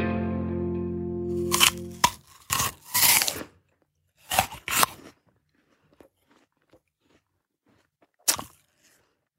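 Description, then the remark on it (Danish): Crisp crunches of someone biting into an apple: a cluster of sharp bites and chewing, a short pause, two more bites, then one last crunch after a quiet stretch. A brief tonal hum opens it. “For eksempel sådan en æble her.”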